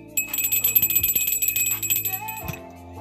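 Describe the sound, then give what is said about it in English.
A hand bell, called a truth bell, rings rapidly and continuously, a bright metallic jangle shaken for a couple of seconds before it stops abruptly. “We're ringing the truth bell and right.”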